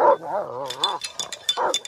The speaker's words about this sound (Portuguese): Ao avistar o mendigo, Eumeu enxotou os cães, que latiam, e convidou Ulisses a entrar na sua choupana.